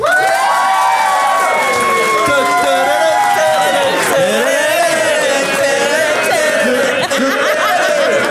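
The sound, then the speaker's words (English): An audience cheers and applauds loudly and continuously, voting by applause for one side of a debate, with whoops and shouts rising above a steady wash of clapping for several seconds. “You're cheering climate change.”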